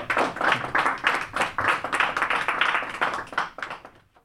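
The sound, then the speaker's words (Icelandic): A round of applause from a group as an agreement on laying a disputed high-voltage power line to Vatnsleysuströnd is signed, many hands clapping in a dense, steady patter that holds for a few seconds and then tapers off toward the end. “Þarna herðum við klappað fyrir þeim Gunnari Axel Axel sinni og Guðmundi Inga Ásmund sinni þegar þeir skrefuðu undir samkómulagið um lagningu þessarar umdeildu háspennu línu suður á Vassleysu strönd.”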